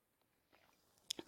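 A quick sip from a drink: after near silence, a few soft wet slurping and swallowing sounds come in short bursts at the very end.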